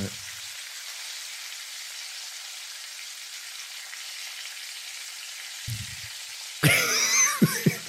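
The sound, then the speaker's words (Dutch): Five sardines sizzling in a frying pan, a steady crackling hiss that carries through the whole clip, then turns louder and busier near the end with a few low thumps. “die borrelen nu in de, in de pan.”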